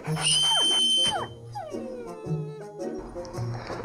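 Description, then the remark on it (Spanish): Dogs named Felipe and Ángeles, being trained to protect the palace, whimper and yip in a run of high-pitched, sliding whines and short yelps, loud at first and then coming in uneven bursts with brief gaps. “Estos perros huelen el miedo, ¿eh?”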